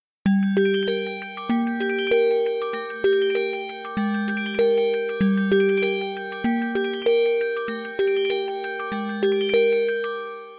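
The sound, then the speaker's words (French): A bright, bell-like synth loop from a song's outro repeats a quick high-pitched melody every couple of seconds over a low bass line that steps down slowly in a chromatic descent, with no voices. “c'est cette boucle dans les aigus qu'on entend très bien lors de l'outro”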